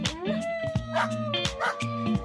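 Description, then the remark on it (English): Dog sounds played back: a quick run of high, drawn-out whines and yelps, fairly loud, with short sharp bursts between the tones and no talking. “Let's talk about some dogs.”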